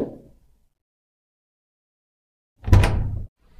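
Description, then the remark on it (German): After a stretch of silence, someone tries a locked door: one short rattling clunk as the handle is pulled and the door refuses to give, then quiet again. “Abgeschlossen? Die Tür ist abgeschlossen?”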